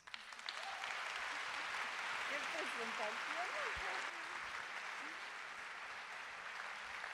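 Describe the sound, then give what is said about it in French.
Sustained audience applause welcoming Gabriela Ramos as she is introduced to speak, a dense steady wash of clapping that holds at an even loudness for about seven seconds, with faint voices murmuring underneath. “Mesdames et messieurs, je vous demande d'applaudir très fort Madame Gabriela Ramos.”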